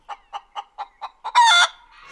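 A hen clucks in a steady rhythm, six short clucks in a row, then breaks into a louder, harsher drawn-out squawk before trailing off.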